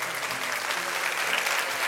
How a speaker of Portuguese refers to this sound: Ei, Deus bom! Aleluia! Podemos aplaudir a Jesus?